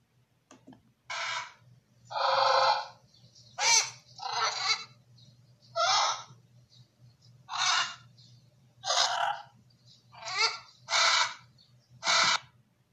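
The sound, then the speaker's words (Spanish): Loud, harsh parrot squawks repeat about ten times in a ragged, roughly once-per-second rhythm, each raspy call piercing, with a faint low hum underneath and no talking. “Espera un minuto, dijo el loro a la serpiente. Si tienes mi graznido, ¿qué tengo yo?”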